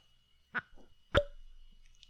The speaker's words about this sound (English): that's the littlest. It's like the little cork pop. cutest little cork pop on these little itty bitty.